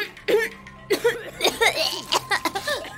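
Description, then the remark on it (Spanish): A woman, just pulled from the water and given mouth-to-mouth while lying on the grass, coughs and spits up water in a rapid series of wet, gasping bursts. It is fairly loud, with no clear words. “Empecé a escupir y a toser.”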